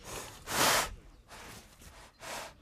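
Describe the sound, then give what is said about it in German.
Heavy, rasping snorts of breath from an injured rhino bull north of Pretoria, its nasal cavities lying open from a long facial wound after poachers cut off its horn; three broad noisy exhalations with quieter airy breathing between them, fairly loud, with no voices. “Immer noch klafft eine längliche Wunde in seinem Gesicht, die Nasenhöhlen liegen offen und seine Atmung ist ein richtiges Schnaufen.”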